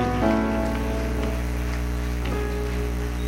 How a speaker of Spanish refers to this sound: Alábalo, dale un aplauso al rey.